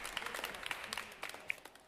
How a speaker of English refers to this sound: and as all great things exist and are wonderful, the happy moments of the world are fleeting as the story, as your show, comes to an end, the crowd cheers and stomps and begs for an encore.